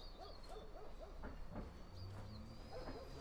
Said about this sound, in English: As the train an electric locomotive with 26 carriages, pulled out of a railway siding at Hounslow in West London at exactly 6:48 a.m.